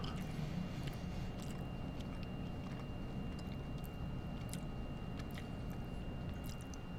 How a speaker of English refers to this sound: Let me move it to the right side of my tongue. Oh, it, it, see, it tastes so good on this side of my mouth. Now I'm gonna put it back no slap left I can chew it.